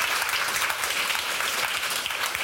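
audience applause

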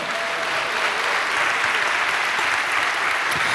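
audience applauding

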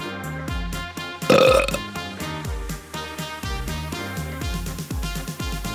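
loud burp

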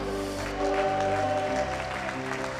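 audience applause

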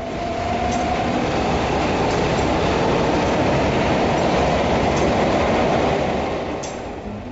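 subway train running

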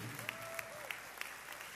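audience applauding

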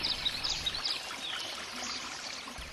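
babbling

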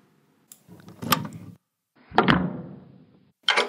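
front door being opened

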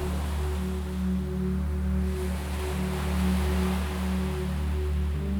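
ocean waves

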